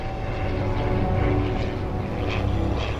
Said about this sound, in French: Soudain, un bruit là-haut attire son attention. Oh, c'est un avion Un avion